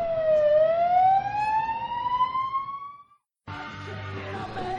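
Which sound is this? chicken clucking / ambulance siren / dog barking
ambulance siren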